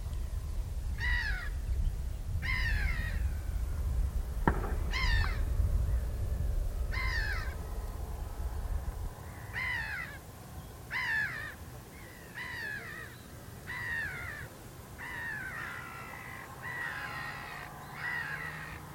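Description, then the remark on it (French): Harsh cawing calls from crows repeat in short bursts overhead, about a dozen caws spaced irregularly, heard outdoors over a low wind rumble with no one talking. “Et donc après, ça sera le grand silence de l'hiver. Oui, euh, c'est seulement après. Avec seulement les oiseaux au-dessus.”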